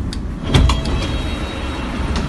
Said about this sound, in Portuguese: Aí sim, aperta é o botão, abre a porta.